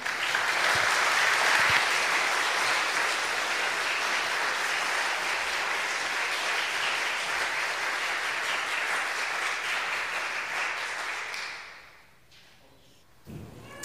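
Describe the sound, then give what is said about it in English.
A large crowd at Christ Central applauds steadily for about eleven seconds to welcome a guest pastor from South Africa, a dense, loud wash of clapping that fades out near the end, followed by a brief quiet and a faint thump. “Ah, thank you so much for that very, very warm welcome.”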